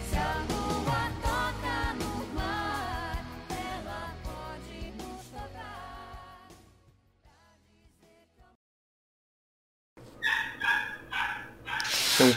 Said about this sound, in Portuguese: cachorro latindo aí. É lá fora, na rua.